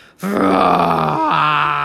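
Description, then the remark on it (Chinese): A person imitates a lion's roar with one loud, low, drawn-out vocal cry, held for well over a second with a brief wobble before it carries on. “发出大声又低沉的叫声”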